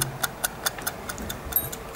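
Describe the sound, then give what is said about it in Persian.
A mechanical timer, set for a 25-minute Pomodoro work session, ticks rapidly and steadily, about five crisp clicks per second, fairly quiet with no voices over it. “یه نکته خیلی خیلی مهمی که پومودورو داره جزو قانونش اینه که شما این 25 دقیقه رو وقتی تنظیم میکنید و تیک تاک ساعت شروع میشه”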